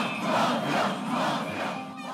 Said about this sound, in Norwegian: Og nå har folk flest fått nok. De går ut i gatene kveld etter kveld og roper mafia og mordere til politikerne sine.